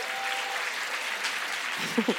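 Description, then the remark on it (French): Audience applause in a hall: a steady wash of many hands clapping, fairly even in loudness, with a brief voice rising over it near the end. “Est-ce qu'il y a des gens qui se sont déjà pris des gaz par les CRS par applaudissement dans la salle”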